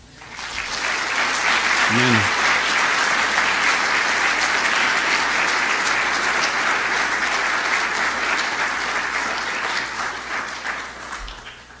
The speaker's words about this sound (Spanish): Dale otro aplauso.